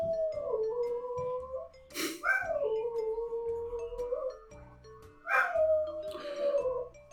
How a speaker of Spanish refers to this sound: Mis perros.